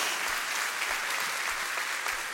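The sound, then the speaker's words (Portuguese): A crowd at a sermon claps steadily for a couple of seconds as applause to the Lord, a dense, continuous wash of applause from many hands, with faint low thumps recurring at regular intervals underneath. “Dá um glória a Deus aí, uma salva de palmas ao Senhor, em nome de Jesus.”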